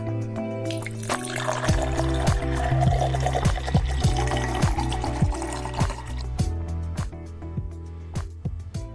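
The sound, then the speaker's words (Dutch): Whisky is poured from a bottle into a glass with a steady run of rhythmic glugs and gurgles for several seconds, no voices. “Schenk je favoriete glas in en luister met ons mee.”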